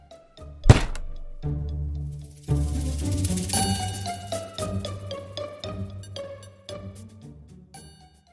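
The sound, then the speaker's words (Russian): One heavy thump of a fist slamming onto a table, sharp and loud, followed by a stretch of ringing melodic tones that slowly fade. No one speaks. “я крепко сжал губы, глядя на оставшуюся без огнева зажигалку, и изо всех сил ударил по столу.”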